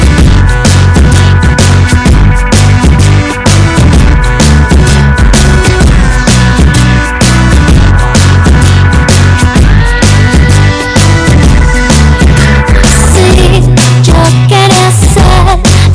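A loud rock song plays continuously on air on Highball Radio, with a steady driving drumbeat and sustained guitar chords filling the mix from start to finish, with no one talking over it.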